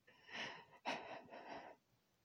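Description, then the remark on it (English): A man's shaky breathing as he is overcome with emotion: an unsteady breath, a sudden sharp catching gasp, then another trembling exhale, with no talking. “his breathing is audibly shaky, and she can see his body rising and falling with each inhalation, exhalation.”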